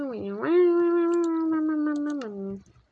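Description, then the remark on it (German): A small dog howling along to singing lets out one long howl that rises at the start, holds a steady pitch for about two seconds, then slides down and fades. “Ich kann nicht singen, ihr kleinen Hund.”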